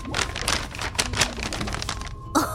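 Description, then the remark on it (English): Crisp crinkling and rustling of a folded piece of paper from inside an old sealed box being unfolded, a steady run of small crackles over a couple of seconds with no voices. “And there's a folded up piece of paper in there.”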